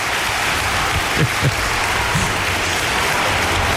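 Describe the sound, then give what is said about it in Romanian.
An audience applauds steadily for the whole stretch, a dense, even wash of many hands clapping at constant loudness, with no voices standing out above it. “Aplauze pentru cei 5.000 de frați de peste frut care au ales Galaxy.”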